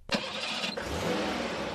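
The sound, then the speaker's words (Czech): A Volga car's engine cranks and catches with a sharp burst, then settles into a steady, fairly loud running rumble as the car begins to pull away from a street corner behind another car, with no voices. “Tak se teď podívejte, jak se za náma ten hodné stréc rozjede.”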